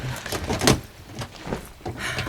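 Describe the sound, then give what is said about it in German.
A suitcase that had been hidden in a bush in a crocodile enclosure is opened, with a few sharp latch clicks and scraping, rustling movement of the lid over about two seconds, with no talking. “Dieser Koffer hier war darin versteckt. In einem Strauch. So, dann wollen wir doch mal sehen.”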